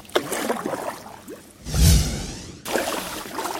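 A canoe paddle pulls through the water in one strong swoosh, surrounded by soft trickling and dripping from the paddle and the hull, as recreational paddlers drift along.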